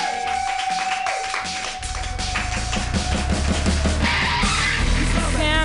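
An audience claps steadily for several seconds, a dense crackle of many hands with a few shouts mixed in. A sustained tone and a low hum run beneath the clapping.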